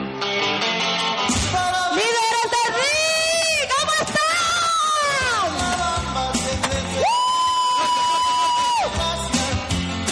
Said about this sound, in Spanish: ¿Cuántos acá creen que se merece un fuerte, fuerte, fuerte aplauso?